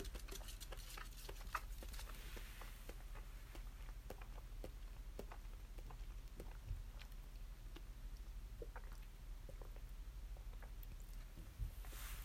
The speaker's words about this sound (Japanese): 咀嚼音すみません。